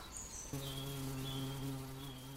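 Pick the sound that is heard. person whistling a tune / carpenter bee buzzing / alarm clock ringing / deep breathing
carpenter bee buzzing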